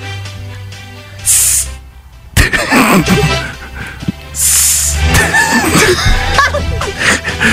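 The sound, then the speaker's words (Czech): Two short, airy snake hisses, the second one longer, stand out against a busy background of murmuring voices and shuffling noise. “To je had, ne? To je had?”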